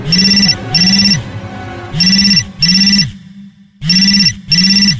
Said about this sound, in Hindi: काफी देर तक जब फोन नहीं बजा और बर्नेडेट को नींद आने लगी तो उसने फोन लाउड मोड में डालकर लेट गई थोड़ी ही देर के बाद बर्नेडेट का फोन बजा